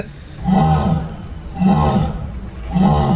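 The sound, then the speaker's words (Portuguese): A jaguar roars in three deep, rasping grunts at a steady rhythm, each one loud and coarse with a low throaty rumble, and no voices alongside. “Esturra!”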